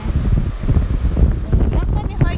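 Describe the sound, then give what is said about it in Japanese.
Constant low rumbling buffets of wind hitting a microphone, loud and dense throughout, with faint voice-like tones poking through toward the end. “何なんだろう。風だけか。”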